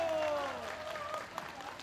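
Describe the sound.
A crowd claps steadily, a dense patter of many hands holding at an even, moderate loudness for a couple of seconds, with a few voices mixed in under the applause.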